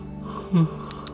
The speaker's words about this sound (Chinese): 五十个哈欠，啊啊，真的一直打哈欠。哎，第五十一对不对？五十一个哈欠，啊啊，五十二个哈欠。